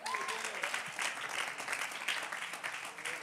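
A crowd applauds, a dense, steady wash of many hands clapping at once, sustained and fairly loud for about three seconds, with a faint voice briefly audible at the start.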